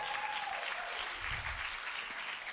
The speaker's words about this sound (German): Die Ranger haben 22 Kilometer Hike hinter sich. Wisst ihr, was das bedeutet? Das ist der Hammer! Fetten Applaus für die Ranger!